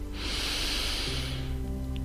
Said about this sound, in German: Nimm nochmal einen tiefen Atemzug